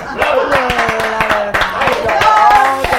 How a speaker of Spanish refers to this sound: Sí, hay que, hay que, sí, un aplauso, te mereces un aplauso.